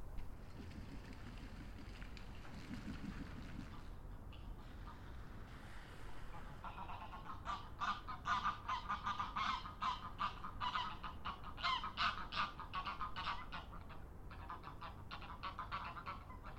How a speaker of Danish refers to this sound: Canada-gæs, der skændes.